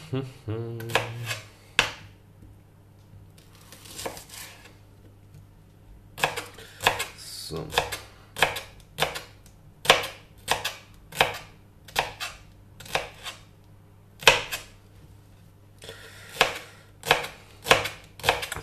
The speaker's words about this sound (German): Ja, was soll ich dir sagen zum Zwiebelschneiden? Die habe ich jetzt nicht in der im, äh, na, im Kühlschrank aufbewahrt. Deswegen brennen sie mir jetzt doch etwas in den Augen.